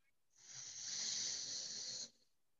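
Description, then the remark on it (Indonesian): A single slow breath drawn in through the right nostril during a breathing exercise, a steady airy hiss lasting under two seconds that rises in gently and cuts off cleanly, with no talking. “Inhale kanan.”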